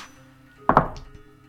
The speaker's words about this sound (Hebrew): אז זרקי שתי קוביות, תבחרי את התוצאה הנמוכה, ותוסיפי לזה את הפלוס של ההתקפה שלך, שזה פלוס שש.